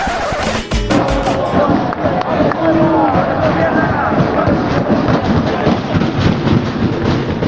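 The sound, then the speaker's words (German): Football fans pound on the steel scaffold stands of the Estadio Fernando Torres in Fuenlabrada, near Madrid, during a match: a loud, continuous metallic rumbling with a few sharp bangs near the start and a roaring crowd noise that never lets up. “zwei von den drei Tribünen hier bestehen aus so einem Gerüst, normale Stahl Stahlkonstruktion. Da wird dann immer ordentlich getrommelt”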